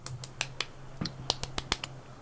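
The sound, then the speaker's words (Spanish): A rhythmic pattern of sharp, close claps, around ten quick hits grouped in an uneven beat, with a faint steady hum underneath and no talking. “Solo si podemos hacer el aplauso de Friends.”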